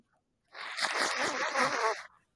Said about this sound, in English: why are you blowing your nose in the what's name, bro? that was unbelievable.